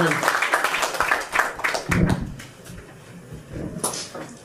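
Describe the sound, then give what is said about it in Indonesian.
A burst of applause for a singer: dense overlapping claps that are fairly loud at first, then thin out into scattered claps and faint murmuring before fading toward the end. “Tepuk tangan lagi sekali lagi untuk ….”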